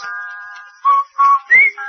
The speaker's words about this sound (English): Yes, you'll whistle while you wash, like this.